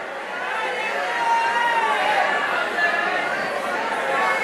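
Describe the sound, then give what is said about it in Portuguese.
An audience in a church, hands raised, shouts 'Glory to God' and 'Hallelujah' together for one minute, many voices overlapping in a dense, continuous roar that stays loud and steady throughout, with no single speaker standing out. “Levante as duas mãos, toque o teto dessa igreja e vamos encher esse local de glória a Deus e aleluias por um minuto.”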